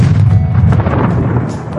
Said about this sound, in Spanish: Disparar un cañón de ejército